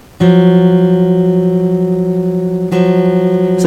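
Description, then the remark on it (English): Two close, dissonant tones sound together as a half step, sustained and steady with a wavering, beating pulse, re-struck once near the end. No talking. “so the half step sounds like this”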